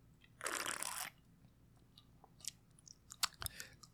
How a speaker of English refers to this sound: Anyway, uh, you heard me cracking open my customary energy drink. It is 10:34 in the p.m. I'm getting ready to go work that night shift again, baby. And um, I'm just doing my pregame, more or less. Let me take a sip for the working man.